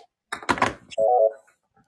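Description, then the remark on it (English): A short electronic phone call alert tone, a steady buzzy beep lasting about a third of a second, comes right after a brief clunking rattle. Moderately loud, with no talking. “Oh, it sounded like you got another phone call.”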